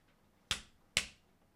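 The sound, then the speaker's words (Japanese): Two sharp cracks from a knee joint, about half a second apart, each a crisp pop that fades quickly against a quiet background. “正解は、膝”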